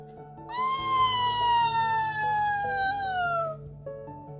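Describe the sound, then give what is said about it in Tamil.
A fox howls once in a long, drawn-out wail lasting about three seconds, its pitch sliding slowly downward, with faint low droning tones underneath. “யார் இப்படி கத்துவா நரி நரி வந்துருச்சு இந்த தடவை கடிக்கிறதுக்கு”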